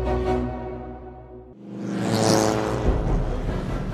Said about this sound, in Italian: L'auto riparte.